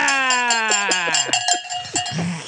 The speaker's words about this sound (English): Give me a goddamn cowbell.